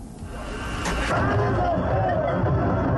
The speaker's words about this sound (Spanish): La euforia que ustedes escuchan la generó en una final de fútbol interescuelas de cadetes